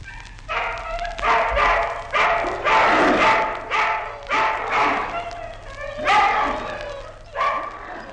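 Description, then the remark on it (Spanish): About a hundred hungry dogs growl and snarl at night while gnawing meat, in a steady run of rough, overlapping bursts, fairly loud, with a low hum underneath and no clear pause between the outbursts. “De noche, en la oscuridad, de cien perros a la vez se oía el roer de los dientes, el gruñido de gusto, el ruido de las lenguas.”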